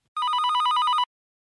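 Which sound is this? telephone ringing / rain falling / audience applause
telephone ringing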